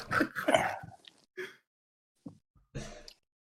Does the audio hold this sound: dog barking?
yes